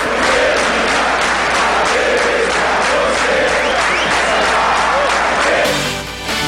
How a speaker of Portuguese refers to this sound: Ó, ah, a torcida batendo palma aí, ó.